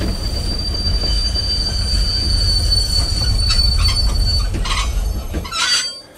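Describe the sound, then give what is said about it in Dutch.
A train from Groningen arrives, rumbling steadily with a heavy low roar, while a sustained high metallic wheel squeal rings over it and bursts of hissing brake noise come near the end. “Het geluid van de aankomende trein uit Groningen doet beide mannen opkijken.”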